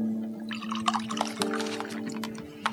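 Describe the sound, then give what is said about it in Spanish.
Wine is poured for a guest, flowing steadily into a glass for about three seconds, a soft gurgling trickle with small splashes, its tone creeping upward as the glass fills. No one speaks. “Yo te sirvo un virito mientras.”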